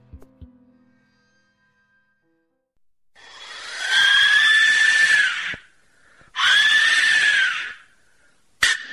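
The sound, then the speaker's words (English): Two long, piercing shrieks from an Aztec death whistle, each a harsh, rasping scream lasting a couple of seconds, loud, separated by a brief pause, with a short third burst cut off at the end. “Here is the sound of the whistle of death.”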